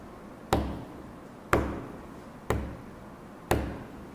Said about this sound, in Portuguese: Isso não é espírito, é alguma coisa que está batendo. Lembra o estalar da madeira? A madeira de latão, tec, tec, tec, tec. É sempre a mesma coisa.